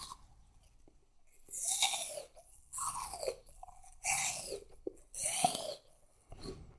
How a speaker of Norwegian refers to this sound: Altså, nå må jeg faktisk tygge ferdig. Ja, men ikke ta mer eple. Men jeg har en bit i hånden.